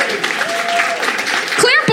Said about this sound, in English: Thanks very much. Round of applause Thank for you. that fella.